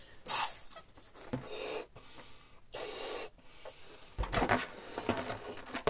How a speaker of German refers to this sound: Nämlich, schau mal, ich blase hier diesen Ballon auf. Warte.